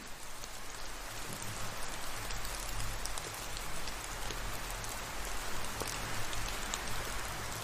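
Steady rain patters continuously, with individual raindrops pattering and dripping from leaves throughout, at a moderate, even level over a low background rumble, with no voices.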